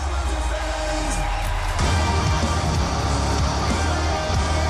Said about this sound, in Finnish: totta kai jengi antaa antaa standing ovation varmasti.